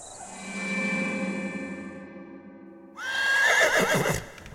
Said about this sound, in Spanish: A la mañana siguiente, te despierta el galope y el relinchar de caballos que se acercan a tu casa.